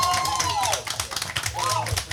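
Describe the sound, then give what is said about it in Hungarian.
A live audience claps steadily and loudly for the Bogosi Brothers Company, with cheering voices and a couple of rising-and-falling whistles riding over the dense, rapid applause. “és lehet, hogy le is húzom itt a géptapsot, és akkor hallgassuk meg a közönséget, mert tök jók vagytok.”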